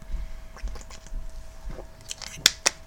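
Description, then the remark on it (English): Someone takes a quick drink of water: soft, faint sips and swallowing with small wet mouth clicks, ending in two sharper clicks close together. No one speaks. “I actually have water in my hands, but I do need to take a quick drink.”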